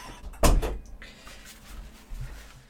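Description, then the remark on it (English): A door is opened to let Percy the cat out, with a sharp knock or latch sound, followed by a brief rustling tail and quiet room tone. “I'm just gonna let him out.”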